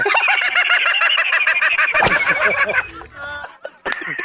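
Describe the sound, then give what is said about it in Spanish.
A human voice imitates a goldfinch with a loud, rapid run of high warbling chirps for about three seconds, then trails off into a few softer, scattered sounds. “No, yo no soy la mamá, soy un jilguero.”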